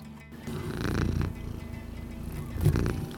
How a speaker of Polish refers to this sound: Przyszedł kotek nam namruczeć, który powiedzieć, że też lubi planszówki.